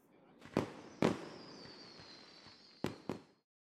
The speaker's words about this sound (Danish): Det er jo fyrværkeri, siger Geo begejstret.